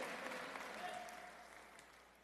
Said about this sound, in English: Come on, we need to say amen real nice and loud right there.